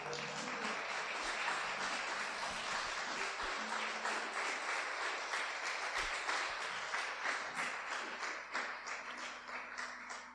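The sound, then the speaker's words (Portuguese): A church audience applauds the Lord steadily for about ten seconds, a dense, even wash of many hands clapping at once, with a faint low sustained tone underneath and no talking. “Pode aplaudir o Senhor.”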